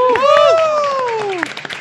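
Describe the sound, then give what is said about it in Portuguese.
A crowd claps steadily while a loud, drawn-out vocal whoop of cheering rises and falls over the applause, with scattered sharper claps near the end; the applause is for Castro Burger, an LGBT burger restaurant, at a live event there. “Primeiro de tudo, ao Castro Burger, uma salva de palmas pro”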